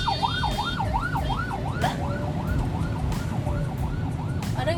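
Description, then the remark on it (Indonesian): An ambulance siren wails in a rapid, rising-and-falling yelp over steady traffic rumble, continuous throughout without anyone speaking. “ada ambulance”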